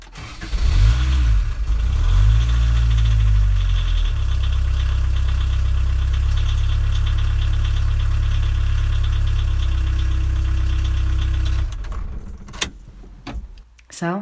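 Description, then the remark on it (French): A car engine cranks and catches with a couple of rising revs on a Saturday evening, 18 April, during lockdown, then settles into a steady, deep idling rumble before cutting off, followed by a few light clicks and a jingle of keys. “On s'extrait, on prend la tangente, on démarre petit tonnerre.”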